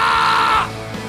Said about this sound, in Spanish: ¿Dónde están los guerreros de esta casa? Denme un grito de guerra hoy. Parece ambulancia, dije de guerra. Es... Eh. ¡Ah! ¡Denme un grito de guerra!